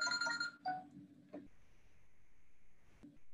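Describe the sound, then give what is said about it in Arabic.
A telephone rings with a short, bright electronic chime: two quick tonal bursts, then near-silence broken by a couple of soft clicks. “نعم هذا التليفون شوي شوشني”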